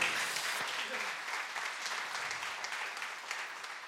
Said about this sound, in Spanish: Un aplauso al Señor si quiere, está bien.